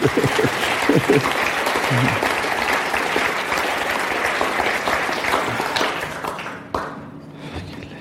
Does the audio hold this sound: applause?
yes